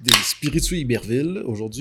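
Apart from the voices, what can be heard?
opening a drink can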